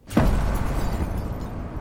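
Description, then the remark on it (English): A single cannon-fire sound effect booms out with a sharp attack, then a deep, rolling rumble that lingers and slowly fades, loud and with no voices over it. “some cannon fire, please.”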